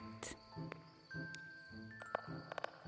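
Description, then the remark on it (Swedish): Crickets chirp in a steady, high-pitched trill that runs throughout, with soft, regularly spaced clicks and taps scattered over a quiet, low background hum. “Syrsor hördes, men också ljudet från en hackspett.”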